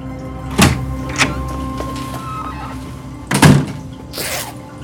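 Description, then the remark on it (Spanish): A bathroom door is handled and shut by someone hurrying in, with a few sharp knocks and thuds spread over several seconds, the loudest clunk near the end followed by a softer rattle. “entra de forma apresurada en el baño y cierra la puerta atrás de sí.”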